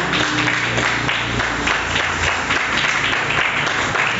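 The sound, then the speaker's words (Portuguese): An audience applauds the Lord steadily, a dense, even wash of many hands clapping at once, sustained at a fairly loud level without pause, with a faint low hum underneath and no clear talk. “Aplauda ao Senhor.”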